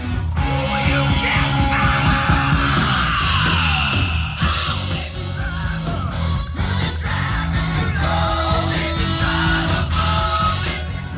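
A rock song plays loudly with a male vocalist letting out raw, sustained screams and yells over driving guitars and drums, the shrieks rising and stretching across the dense mix.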